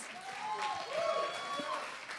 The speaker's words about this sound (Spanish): No se olviden que el aplauso más importante es para ustedes, para ustedes que están aquí, que vinieron, que asistieron. Gracias.